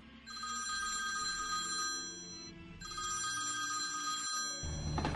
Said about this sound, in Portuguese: Toca o telefone.